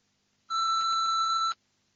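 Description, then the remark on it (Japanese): A single steady electronic beep lasting about a second, clear, an answering machine tone before a recorded message plays, surrounded by near silence. “1番留守番電話のメッセージを聞いています。”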